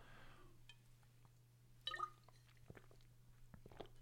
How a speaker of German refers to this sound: Ich brauche mal einen Schluck Wasser.